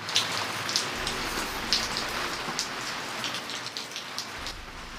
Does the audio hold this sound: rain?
yes